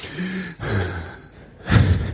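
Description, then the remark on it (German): Audible breaths drawn in and pushed out, three airy passes in a row with the last one loudest and most forceful, as someone breathes deeply in and out on purpose. “würde ich empfehlen, einfach nur bewusst atmen zwei Minuten am Tag hinsetzen, Augen schließen, aufrecht hinsetzen und einfach nur zwei Minuten am Stück tief ein- und ausatmen.”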